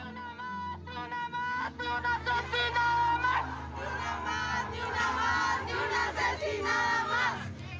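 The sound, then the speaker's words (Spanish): Hundreds of women shout slogans in unison at the 8 March 2020 march on Sexta Avenida in Guatemala, many voices raised together in rhythmic chants, loud, with a dense wash of overlapping voices throughout. “Así sonó la marcha del 8 de marzo de 2020 en Guatemala, pocos días antes de que la pandemia paralizara al mundo.”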